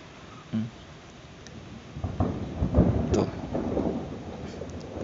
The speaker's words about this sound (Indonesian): oh Tuhan geledek geledek geledek geledek